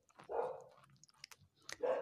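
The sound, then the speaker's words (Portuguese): Household pet dogs barking: two loud, rough barks about a second and a half apart, with small clicks and shuffling in the quiet gap between them. No one speaks. “Ih, meus cachorros começaram com uma latidona aí, vou ver se indo a cozinha ajuda um pouco.”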